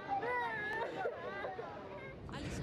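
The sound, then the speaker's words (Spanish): Several children who have just been separated from their parents cry and wail together, high, wavering sobs overlapping in a continuous tearful chorus, with a murmur of other voices in the background. “Este es el sonido del llanto desconsolado de niños que acaban de ser separados de sus padres la semana pasada.”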